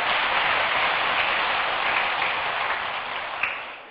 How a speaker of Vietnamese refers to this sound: nếu làm được và thấy nó dễ quý vị hãy dành một tràng pháo tay để cam kết nó